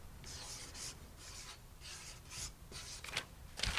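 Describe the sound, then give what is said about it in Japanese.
A marker squeaks and scratches across a stiff shikishi board in a series of short, quick strokes, fairly quiet, with a few sharper strokes toward the end and no talking, as a percentage estimate is written on the board. “はい、じゃどうぞ色紙に書いてください”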